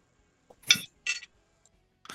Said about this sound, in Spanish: Está comiendo. está levantando los cubiertos. Ya está, ah, está, tragando. tragando.